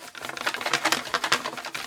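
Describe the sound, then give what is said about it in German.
A box full of paper question slips is shaken, giving a quick, dense rattling rustle in uneven bursts for about two seconds, with no voices. “So, und ich habe hier eine Box voll mit Fragen. Hört ihr das?”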